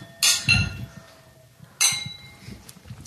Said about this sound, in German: Aber soll man drauf anprosten